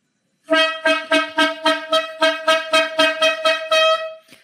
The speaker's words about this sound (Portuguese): Olha a corneta aleatória chegando.